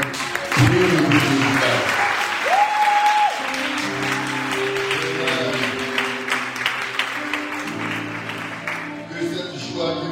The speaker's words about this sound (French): de là où tu as assis, tu vas donner une grande acclamation le Seigneur.